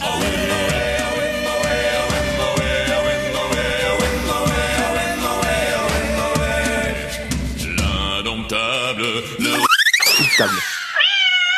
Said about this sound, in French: Ah, c'est ah, encore le chat.